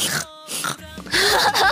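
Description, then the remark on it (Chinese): A person imitates a pig oinking the way characters in the cartoon Peppa Pig do: a few short, nasal grunts and snorts in quick succession, fairly loud, with a rough breathy texture and no ordinary speech. “小猪佩奇里面，对，就是这样，说两句话，然后学一下猪叫，说两句就学，然后还……”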